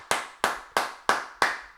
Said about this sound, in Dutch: Applaus. Gezellig. Applaus applaus.